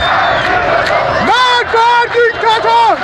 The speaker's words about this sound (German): Ja, Nachts in Teheran. Anhänger der Reformbewegung schreien ihre Wut hinaus. Nieder mit der Diktatur.